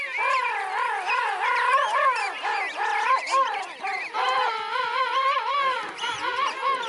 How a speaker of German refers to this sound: so finden sich ja auch Mutter und Kind sozusagen bei den Pinguinen über den Sound. Oh, erzähl mal, wie läuft das ab? Die haben spezielle Rufe halt. Die, die Mütter oder die Eltern können an dem, an dem Ruf von den Küken erkennen, welches ihres ist.